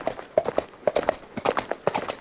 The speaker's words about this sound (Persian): دیو سر از عصبانیت قرمز شده بود خودش رفت دنبال پریزاد پریزادم سوار اسبش داشت دور میشد